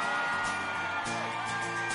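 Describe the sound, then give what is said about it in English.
An audience bursts into loud, sustained applause with enthusiastic whoops and yells rising over the clapping, filling the whole moment with dense crowd noise, as the audience votes on a joke by applause. “Uh, by applause.”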